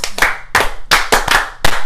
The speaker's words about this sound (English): So how do you clap like that? Like that.